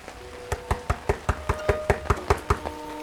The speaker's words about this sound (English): pulls himself to his full height, and knocks on the door.